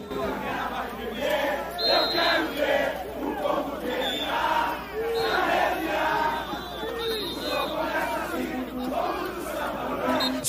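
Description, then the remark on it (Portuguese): A huge crowd of a red-and-white samba school from the Zona Leste sings and shouts together, a dense, loud wall of voices that holds steady for about ten seconds with rising chant-like swells. “Chegou a escola da massa, da gente que canta com raça, que luta por nosso país na Zona Leste.”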